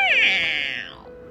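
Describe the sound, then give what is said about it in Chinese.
A kitten gives a single loud meow, high-pitched and drawn out, rising at the start then gliding downward and fading over about a second. No one speaks. “雅宝则跳上了小猫咪的背，温柔的摸着小猫咪。 这次我们换去瑟尔的家吧。喵！”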